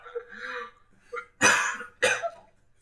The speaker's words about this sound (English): I swear to God, I didn't just take a hit and start coughing. I choked on my alcohol, which is probably more legal than coughing after taking a hit.